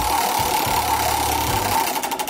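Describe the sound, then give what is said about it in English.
The big prize wheel on Engineering Academy, spun by Engers, clicks in a fast, steady mechanical rattle that slows near the end into a few separate ticks, with no voices over it. “Over to Engers to spin the wheel.”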